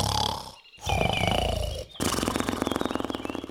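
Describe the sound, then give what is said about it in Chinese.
A voice imitates two giants snoring as they lie back down to sleep: three loud, growling snores with a rattling, buzzing pulse, separated by two short pauses, the last snore long and steady. “两个巨人又躺下去继续睡觉，没多久又开始打呼了。”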